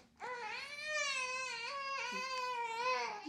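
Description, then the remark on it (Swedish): A baby in a studio cries in a sustained, wavering wail with babbling inflections, fairly loud, with no other voices. “Och om ni undrar vad som låter så har vi faktiskt en bebis här i studion.”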